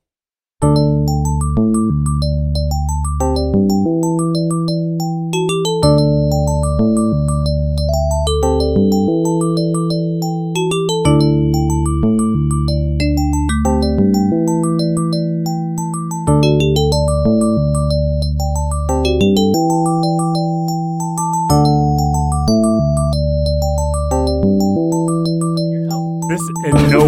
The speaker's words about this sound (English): This is the main theme composed by one of my favorite classic Genesis composers